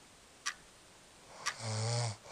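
A loud, rasping snore from someone lying right next to the listener, one drawn-out breath lasting about half a second, preceded by two short sharp clicks.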